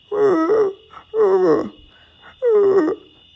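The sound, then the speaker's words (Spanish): A dog gives three soft, plaintive growling moans, each about half a second with a sagging pitch, separated by short pauses. Moderately loud, with no other sounds around. “No, no era un gruñido feroz de alguien que está muy enojado, sino un gruñido quedito, permanente, una especie de queja”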